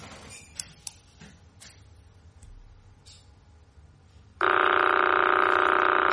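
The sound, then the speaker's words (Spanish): Crab pulsar signal played as audio: after a few seconds of faint hiss and scattered clicks, a loud, steady, harmonic-rich buzz, a periodic signal repeating every 0.033 seconds, starts abruptly and holds unchanged to the end. “es el cangrejo vale la señal del pulsar cada 0,033 segundos.”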